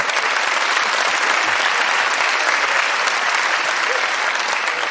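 Sustained audience applause for a joke about Pedro Sánchez and Susana Díaz, a dense, steady clatter of many hands clapping at an even, fairly loud level for about five seconds, with no voices standing out.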